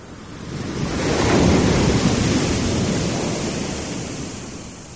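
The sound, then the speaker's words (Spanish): Huge ocean waves crash onto a northern beach in a continuous, thundering roar that swells to a peak and slowly recedes, loud, with no voices. “El sonido de las olas gigantes rompiendo en la playa del norte.”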